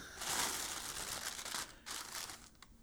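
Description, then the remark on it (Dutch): Continuous crinkling of a small plastic bag, fetched from a cupboard, being unpacked, with dense crackly rustles that pause briefly and resume before fading out. “Eh, daar in de kast ligt dat plastic tasje. Kun je dat even pakken?”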